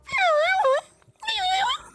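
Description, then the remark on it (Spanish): A person's voice imitates a spider monkey call, mocking how mimes' WhatsApp voice messages sound, with two loud, high-pitched wavering squeals, each lasting just under a second, separated by a brief pause. “Esos mimos que suenan, que, suenan como, como, como un mono araña, weón.”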